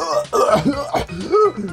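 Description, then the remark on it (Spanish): A voice mimics the hacking cough of a neighbor who smokes marijuana, with a few rough, throaty bursts and strained vocal sounds, loud, over about two seconds. “El problema no es que fume el problema es que tose como a hueonado, weón. Como que tose como...”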